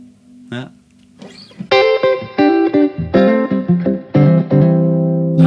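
Electric guitar played with clean, bright picked notes and short chord stabs, each attack crisp and ringing out, in an uneven melodic phrase that grows louder after a soft, hesitant start.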